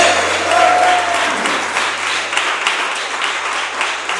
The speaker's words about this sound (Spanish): Tomen asiento y den un aplauso al Señor fuerte. Oye, un Señor fuerte.